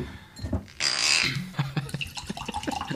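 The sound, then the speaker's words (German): Primitivo wine splashes into a glass as it is filled right up again, a brief burst of gurgling pour with a faint rising ring, followed by a few soft drips and light taps. “Macht er das Glas nochmal ganz voll.”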